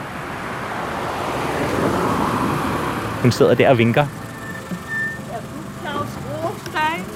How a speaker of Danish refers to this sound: Nu kommer der en hvid bil.